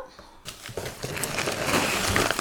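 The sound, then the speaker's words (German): Rustling and crinkling of a paper bag being pulled out of a HelloFresh delivery box, starting abruptly after a brief quiet moment, continuing as a dense, crackly handling noise for a couple of seconds. “die dritte Papiertüte.”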